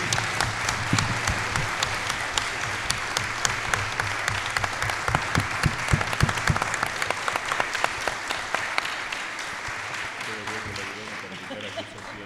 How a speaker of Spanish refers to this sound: Propongo un nuevo aplauso para nuestros dos disertantes.